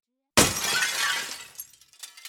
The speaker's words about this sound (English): Injun Joe had broken a window and leapt through it.